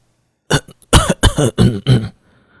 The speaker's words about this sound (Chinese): 孙振成整张脸都涨得通红，拼命的咳嗽，以掩饰尴尬。